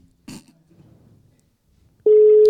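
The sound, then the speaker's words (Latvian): A loud, steady electronic phone tone of an unanswered call starts abruptly near the end and holds unbroken, following a brief soft thump and faint low rustling; no one speaks. “bet kāpēc viņa neceļ? Viņai varbūt kredīta nav vai kas interesants.”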